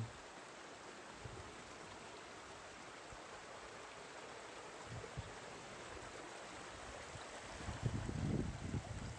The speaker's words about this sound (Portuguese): Escute o som da natureza.